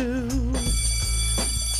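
signal or alarm, bell ringing

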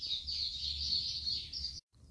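bird, small birds chirping

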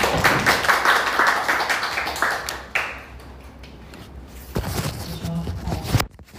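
crowd, audience applause

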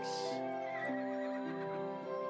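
animal, horse neighing

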